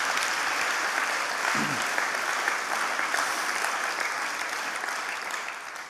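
Sustained audience applause, a dense steady wash of many hands clapping at once, holding loud for several seconds before easing off slightly at the end. No one speaks over it.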